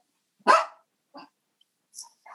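A dog lets out one loud, sharp bark, followed by a few short, fainter yelps and snuffles in otherwise quiet surroundings, with no one talking.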